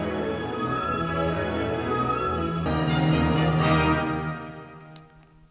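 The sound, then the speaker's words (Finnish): Full orchestral music swells with sustained, layered chords, a recording combined mathematically with the acoustics of the Konzerthaus Berlin concert hall, then the sound fades into a lingering echo at the end. No one speaks. “Tää on nyt Berliinin konserthaus.”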